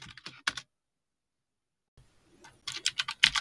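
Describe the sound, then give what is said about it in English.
Crisp clicks of the mechanical keys of a distraction-free writing device being typed, a quick burst of strokes, then a pause of silence before a faster, louder run of clacking keystrokes. “For those of you interested, mechanical keys other ones that sound like a typewriter or an old-fashioned word processor from yesteryear.”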